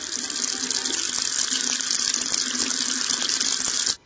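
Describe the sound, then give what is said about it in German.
Tap water pours steadily into a cooking pan for making macaroni, for about four seconds, a loud hissing rush with a slight rising resonance as the pan fills, then cuts off abruptly. “Zu den Alpenmakaronen muss man zuerst einmal eine Pfanne nehmen. Dann tut man Wasser drin.”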